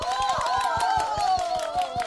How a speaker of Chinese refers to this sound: 觉得在埃及发生动乱、参与动乱的这位小姐姐，目睹动乱的小姐姐，这个故事够精彩的，掌声在哪里？